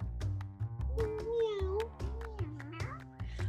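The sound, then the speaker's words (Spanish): A cat, Edwin, meows twice in drawn-out, wavering cries, each lasting about a second, over a steady rhythmic musical backing with a thumping low beat. “Ah, y Edwin, el gato.”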